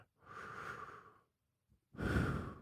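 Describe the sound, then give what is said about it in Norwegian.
A voice imitates a great-grandmother's last breath as she died: a long, drawn-out breathy inhale, a brief pause, then a louder, heavier rasping exhale, with no talking. “Jeg husker hun sånn Husker det enda vi sto rundt der, og så tok hun sånn siste pust.”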